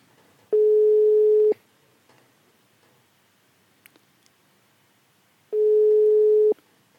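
Two long, steady telephone ringback tones, each about a second, separated by a quiet pause of several seconds, as an outgoing call rings on the line. A few faint clicks occur between them.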